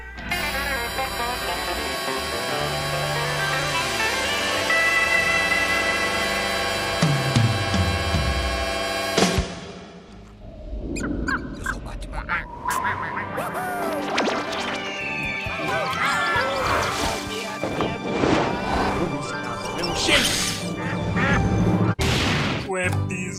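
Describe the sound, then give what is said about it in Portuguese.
A short, bright musical jingle plays loudly up front, then breaks off into a busy stretch of sound effects like quacks, crashes and whacks, with voices mixed in. “E é depois a nossa vinhetinha vinhetosa. Cadê a vinheta, meu filho?”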